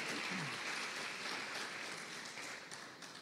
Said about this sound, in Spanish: Dale una ofrenda de palmas al Señor si tú lo crees esta mañana.